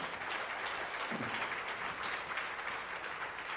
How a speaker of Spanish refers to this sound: Den un fuerte aplauso al Rey de la Gloria.